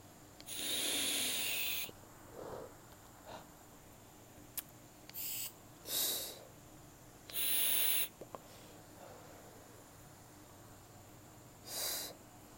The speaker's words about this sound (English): Wait, like, let me puff my vape first.